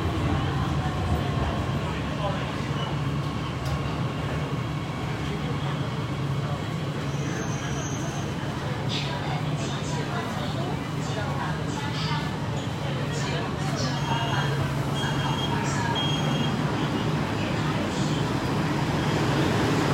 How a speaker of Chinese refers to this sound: 大家好，刚才听到了吗？车呼呼的停下，又呼呼的开走。你们猜他在干嘛？